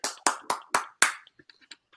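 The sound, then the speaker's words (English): Five sharp, evenly spaced hand claps in quick succession, like a brief burst of applause for someone who just got married, followed by a few faint, scattered clicks and taps before it fades out. No one speaks. “applause, applause.”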